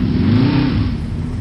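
A jeep engine revs loudly, a steady low rumble with rising harmonic tones, filling the short moment on its own with no voices.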